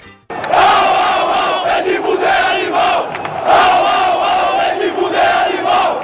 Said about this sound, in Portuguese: O Renato desejou que o Zidane tivesse criado chifre, mas a gente tem um caso aqui no Brasil que tem a ver com o animal, que era o Lu Edmundo Animal, que a torcida do Palmeiras gritava o quê?